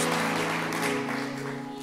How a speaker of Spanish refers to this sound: Dele fuerte ese aplauso al Señor.